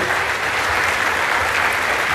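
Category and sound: crowd, audience applauding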